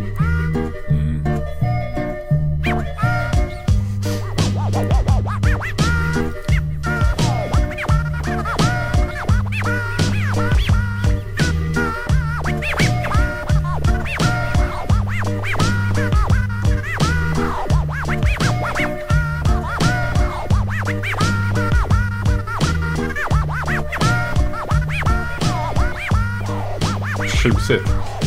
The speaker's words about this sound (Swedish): Jo, mitt huvudsakliga bidrag till sexaporna var just eh, Scratch och de här, eh, de här eh, lite samplingarna från barn och humorskivor och sådana saker.